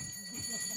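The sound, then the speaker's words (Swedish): A cowbell, used by the editor-in-chief of the magazine Socialpolitik to signal when someone speaks too long at a moderated discussion, rings with bright, metallic overtones that shimmer steadily through the short moment, fairly loud, over a faint low murmur. “Hon har en kohälla som låter så här när någon pratar för länge.”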